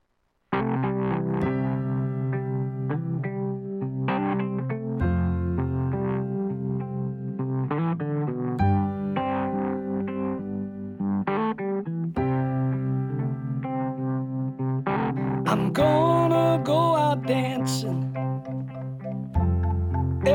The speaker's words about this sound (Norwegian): Og det her er da en tekst som er formidlet av en mann på 82 år som kommer ut med ei forrykende skive. Så vi eh, kan jo sjøl driste oss til hva han har i tankene når han synger dette. Spill høyt, folkens.